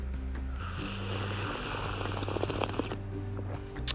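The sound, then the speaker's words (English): A long, noisy slurp of hot Nescafé coffee being sipped in the morning, drawn out for several seconds over a low steady hum, ending with a small click. “Because this is the sound of heaven.”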